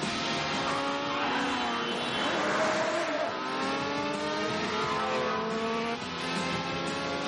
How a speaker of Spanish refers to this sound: Los dos circulan a gran velocidad por carretera esquivando a los vehículos.